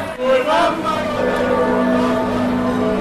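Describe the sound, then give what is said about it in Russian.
Large church bells ring from Giotto's bell tower of Florence Cathedral, Santa Maria del Fiore, in Florence, Italy, in summer 2023, their deep, humming tones overlapping and sustaining steadily for several seconds, with a faint murmur of a crowd beneath. “Это колокольня Джотто, главного флорентийского собора Санта-Мария-дель-Фьоре.”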